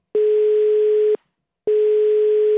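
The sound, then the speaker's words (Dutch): An outgoing call's ringing tone sounds twice: a steady, moderately loud electronic tone held about a second each time, separated by a short silent pause. No one speaks. “Dus laten we eens gaan bellen.”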